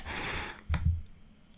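A single sharp computer mouse click, fairly quiet, following a soft breathy exhale, with a faint low thump just after and no talking; someone clicking on the Trello Gold option.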